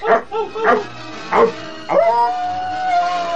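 A tiger-hunting dog named El Temible barks impatiently in a quick series of four sharp barks, then lets out a drawn-out whining howl, fairly loud with no one talking.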